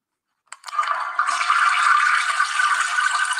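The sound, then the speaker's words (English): A toilet flushes, starting with a sharp click of the handle and then a steady, loud rush of water that continues without letting up. No one speaks. “I want to flush it again.”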